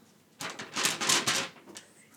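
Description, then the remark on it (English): A sheet of paper holding a list rustles in a quick flurry of crisp, crinkling scrapes lasting about a second, then fades to a faint trailing rustle. No one speaks. “Yeah, if you hear a sheet of paper rustling throughout it's the episode, me.”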